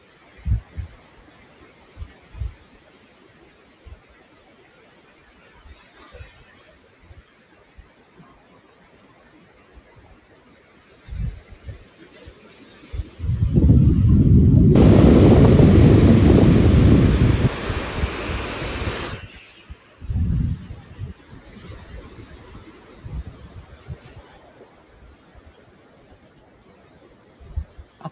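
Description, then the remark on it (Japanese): Ocean waves at dusk at Tsujido wash in a low, steady rumble, broken midway by one loud roaring surge that swells for several seconds before dropping back to the quieter background wash. “夕暮れの波音とシトラスの風5分”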